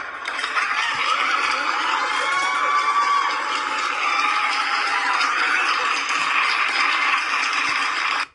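A loud, steady burst of applause mixed with crowd cheering as an audience welcomes a guest physiotherapist, sustained for about eight seconds before cutting off abruptly, with no talking over it.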